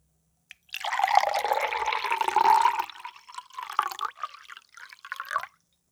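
Water pours steadily into a drinking glass for about two seconds, then continues in shorter, uneven splashes and trickles before stopping once the glass is full. Fairly loud, with no talking.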